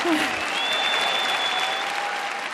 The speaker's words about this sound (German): Mit viel Applaus wurde er letzte Woche hier im großen Sendesaal empfangen. Jonathan Safran Foer.